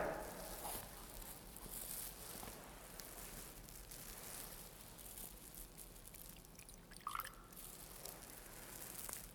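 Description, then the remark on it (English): A faint trickle of water poured into wine in a chalice during a church liturgy, with soft drips and a brief clink near the end, set against a quiet hiss and no talking. “By the mingling of this water and wine, become partakers of his divinity.”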